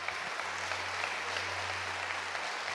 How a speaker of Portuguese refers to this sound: Alguém pode aplaudir o Senhor, alguém pode gritar.